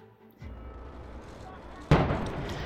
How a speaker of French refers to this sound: L'explosion de la porte arrière donne le signal aux hommes présents pour l'assaut.